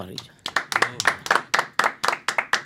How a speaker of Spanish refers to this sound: Un aplauso para